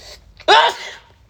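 A man sneezes once, loud: a brief sharp inhale followed by a forceful explosive burst that trails off quickly.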